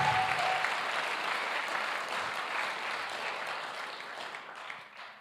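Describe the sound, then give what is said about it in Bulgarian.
A church audience claps together, giving God an offering of applause, in sustained, dense applause that holds steady for several seconds before thinning slightly toward the end, with no voices standing out. “О, ако вярваш в това, дай на Бога едно мощно дарение на ръкопляскане.”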